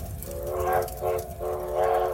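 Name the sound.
train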